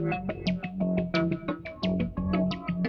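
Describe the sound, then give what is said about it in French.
A synthesizer in wave mode plays a bright, buzzy sequence of rhythmic notes with shifting, morphing waveforms and a steady low bass line, loud with no voices. “Au fait, ce que j'aime, c'est que il y, a énormément d'options de modulation des formes d'ondes.”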